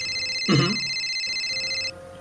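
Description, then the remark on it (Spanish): A cell phone on a table rings with a loud electronic ringtone that trills steadily with bright, high tones for nearly two seconds, interrupted briefly by a short burst of noise, then cuts off, leaving a faint low hum. “Y ese celular empieza a sonar muy fuerte en tu, en tu mesa.”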